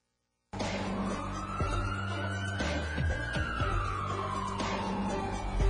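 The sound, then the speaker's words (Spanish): Busy city street traffic rumbles steadily in the north-west of Tuxtla Gutiérrez, near Plaza Sol and its roundabout, with a siren slowly rising and falling and a few louder whooshes of passing vehicles. “Así es que esto es el tráfico a esta altura de la ciudad al norte poniente de Tuxtla Gutiérrez.”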